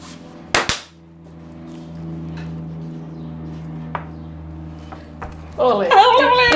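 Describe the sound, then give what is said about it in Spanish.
A single loud, sharp clapperboard snap lands near the start with a quick decay, then a low steady hum fills the pause before someone begins speaking at the end. “la claqueta”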